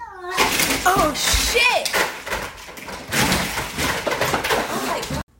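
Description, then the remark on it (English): A frantic cat, Nala, goes into a total freak-out and thrashes against a glass door, arms flying and head going into the glass. This produces a rapid, chaotic flurry of loud thumps and rattling bangs for several seconds, with a person briefly exclaiming in alarm. “And she just totally went crazy ninja. Crazy. Arms flying, head going into the glass.”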